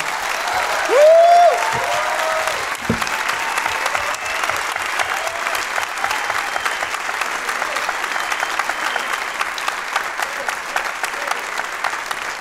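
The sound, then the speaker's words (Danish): Sustained applause from a live audience giving the show's guests a hand at the close, a dense steady patter of many hands clapping at even loudness for the whole stretch, with a brief cheer or whistle near the start. “Skal vi ikke lige øh, give dem en hånd, fordi jeg ja, synes virkelig, det var gode.”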